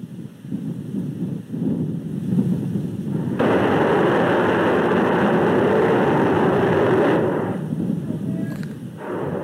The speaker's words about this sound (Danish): Kan du gætte, øh, hvad der sker der? Ja, det lyder som en motortest, det her. Det er det også. Og det er en motortest af den her Raptor-motor, mm. altså på den prototype,